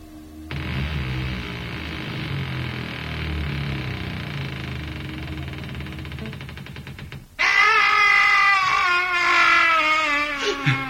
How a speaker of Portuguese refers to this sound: O grito vem lá de baixo.